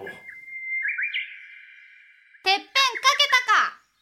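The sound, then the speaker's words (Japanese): A voice imitates a Japanese bush warbler's song: a long, steady whistled note that lifts slightly, then a quick bright flourish of three or four clipped, chirping syllables, fairly loud. “されど、及ばずながらこの柴田勝家、浅井長政殿のウグイスにならば、喜んでなり申し候。”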